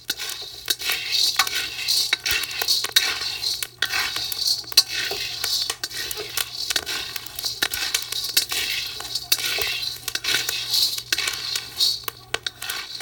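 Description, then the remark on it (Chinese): Coffee beans being hand-roasted in a small flat pan over very low heat: a continuous dry rattling and scraping with dense little crackles and pops, steady throughout, with a low hum beneath and no talking. “是的，你听到的这个声音呢，就是拿了一个小的平底锅，就炒豆子炒起来的声音。”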